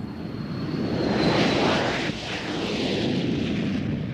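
A steady, loud roar of an airplane engine in flight to Gangwon-do, with a broad rushing drone and a thin high whine fading in and out over a few seconds, no voices.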